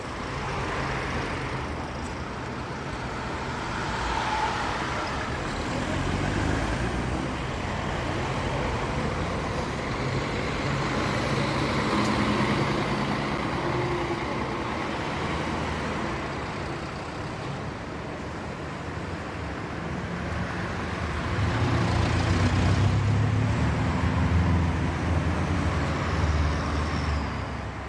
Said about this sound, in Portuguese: Nós vamos ouvir agora os sons da paisagem sonora de uma cidade.